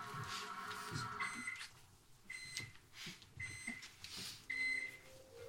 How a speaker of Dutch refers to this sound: En hij geeft, wanneer die klaar is, geeft hij piepjes. Piep, piep, piep, piep. Dat is de elektronica die zichzelf niet uitzet.